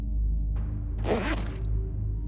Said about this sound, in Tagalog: Tapos binuksan niya yung zipper ng bag niya habang naglalakad pa rin kami ng dahan-dahan